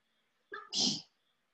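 A single sneeze, a short voiced intake followed by a loud, breathy burst that cuts off quickly, heard alone against near silence.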